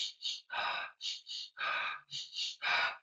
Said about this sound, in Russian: Попробуйте сделать два раза вдох, один а раз выдох. Вот так. Попробуйте. Два раза вдох, один а раз выдох.